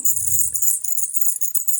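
Small bells on a reindeer antler headband jingle in a steady, bright shimmer throughout, fairly loud, with a soft low bump near the start.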